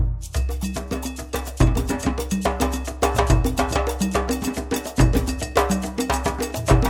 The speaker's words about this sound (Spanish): Escuchemos esta divertida rolita de …